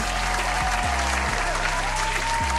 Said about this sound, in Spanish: Así que recibamos con un fuerte aplauso